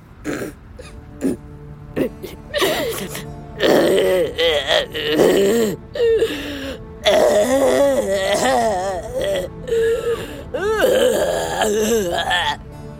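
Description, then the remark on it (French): A dinosaur cries out in a series of loud groaning wails, their pitch sliding up and down, broken by short pauses and throaty rasps, with no talking. “Ça, les enfants, c'est un dinosaure qui pleure.”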